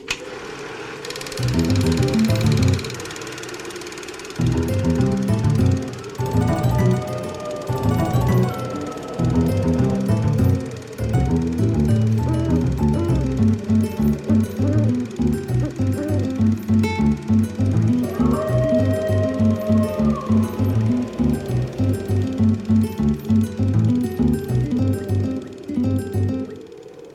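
A short instrumental music interlude with no talking: a steady, fairly loud groove of pulsing low notes, with brighter melodic lines drifting in above, running for about half a minute.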